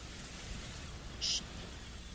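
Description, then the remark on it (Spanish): A steady, low wash of sea waves fills the short stretch, soft and even, with a brief brighter hiss rising for a moment near the middle. No voices are heard. “En exclusiva, el ruido del mar.”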